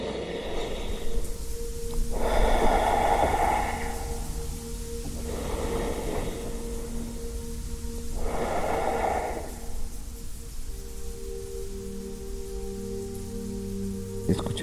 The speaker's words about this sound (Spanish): Todo siempre comienza con una respiración profunda